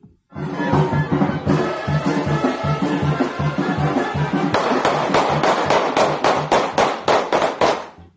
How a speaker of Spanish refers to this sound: Ahí escuchamos los balazos, escuchaba música de banda antes de que cayeran las ráfagas. Dos sujetos ingresaron al Deportivo La Asunción eh, en la avenida Emiliano Zapata. Dispararon de manera directa contra un hombre que estaba en las gradas.